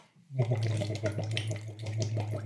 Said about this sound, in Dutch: En de lengte is ongeveer iets van 33, eh, 35 centimeter lang. En die moet je dan een paar centimeter in het water steken. En dan blaas je door dat tubetje uit in het water.